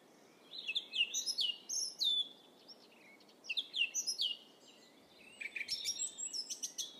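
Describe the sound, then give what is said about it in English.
A single small songbird, no bigger than a hand, sings a rapid, varied song in three bursts of bright, high chirps, whistles and trills, separated by brief pauses, clear over a soft background hiss. “hard to believe that all of this is coming from one bird, and he's no bigger than my hand.”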